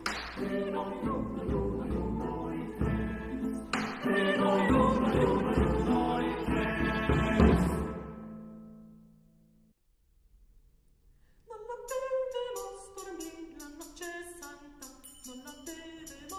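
A Christmas carol sung by an ensemble, with full, layered voices that fade into a brief hush before a brighter, gliding melody resumes.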